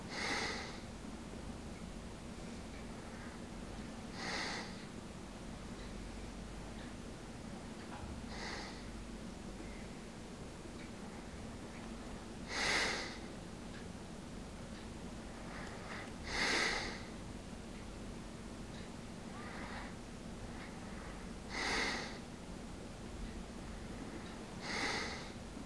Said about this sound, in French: l'expiration le fait d'expulser de l'air bruyamment comme cet homme que l'on vient d'écouter dormir. Il n'y a que des expirations, comme si l'on avait gommé ses inspirations.